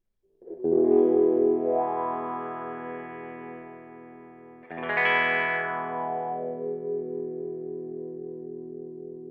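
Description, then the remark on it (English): Two sustained electric guitar chords ring out, each with a wah-wah pedal rocked forward and back, sweeping the tone from dark to bright and back, loud, with a slightly distorted edge and no voices. “And as you open it up or as you push it out, uh, it opens up the frequencies and suddenly starts allowing more high frequencies to come through and and you can rock it forward and back and and get a wah wah kind of sound.”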